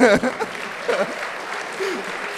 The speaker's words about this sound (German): also ja, auch da vielleicht nochmal einen kleinen Applaus.